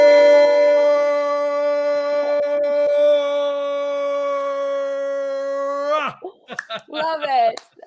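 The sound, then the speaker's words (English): A long, loud, sustained roar from voices imitating an animal holds steady for about six seconds, then breaks into shorter, wavering howls and yelps. “Here we go. One, two, three. Roar!”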